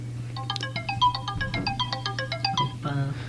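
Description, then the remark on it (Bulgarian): A phone's electronic notification tune plays a quick, bright run of bleeping tones for a couple of seconds, signalling an incoming message, over a steady low background hum, with no one talking. “А, тук извънземните нещо ми пращат съобщение, извиняйте.”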